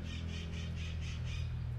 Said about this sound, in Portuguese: a maritaca tá maritando. o motoqueiro barulhento, a buzina, o caminhão passando e a maritaca tá maritando.